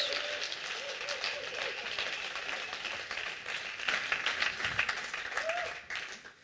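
An audience in a church applauds steadily, a dense wash of many hands clapping at once for several seconds, with a few faint voices and whoops mixed in, as two people come on stage.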